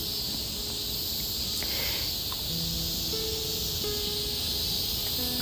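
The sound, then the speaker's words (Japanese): A dense, continuous chorus of minmin cicadas buzzes steadily throughout, forming a bright, high sustained drone with faint tonal calls and occasional soft rustles underneath. “いよいよミンミンゼミの声もいい感じになってきました”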